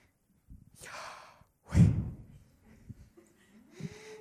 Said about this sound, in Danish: Tænk sig, hvis Guds navn i virkeligheden er et åndedrætslyd.